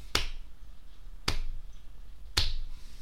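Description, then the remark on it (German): Three slow, evenly spaced sarcastic claps from a single person clapping alone, each a sharp bright crack with a brief ring-out and pauses of about a second between them, with no one talking. “Doch, da, da, kannst du, da gibt es eine Sache, wo es nicht traurig ist, das ist sarkastischer Applaus. Den kannst du auch alleine machen, so.”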